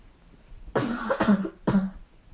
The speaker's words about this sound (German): Boah, sorry, wenn ich viel rede. Dann muss ich wieder husten.